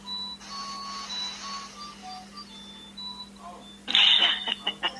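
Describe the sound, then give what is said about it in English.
A melodic chime of clocks, a sequence of clear bell-like notes ringing out over a few seconds, followed by a brief burst of louder, brighter sound near the end. “that music? Whose is that? What is that, music, from? Connie? It's your clocks.”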